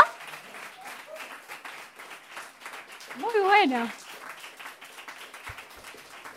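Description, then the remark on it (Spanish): Steady audience applause for Ramiro Bugiari and his tertulias de pensamiento (thought discussion gatherings), a dense patter of many hands clapping that continues throughout, with a voice briefly calling out over it midway. “Este es el aplauso para Raimi Gugiari y sus tertulias de pensamiento.”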